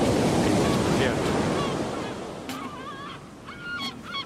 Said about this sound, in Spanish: Vamos a escuchar otro pequeño fragmento. En una tienda nómada, una mujer bate la mantequilla